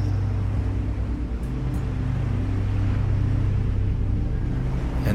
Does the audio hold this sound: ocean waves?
yes